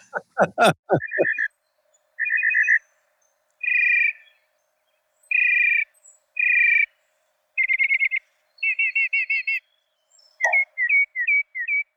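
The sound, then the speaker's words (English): A mockingbird sings clearly and nonstop, cycling through a string of different chirping phrases, repeating each one several times in quick bursts before switching. No voices are heard. “about the mockingbirds? Uh, you just uh, nonstop.”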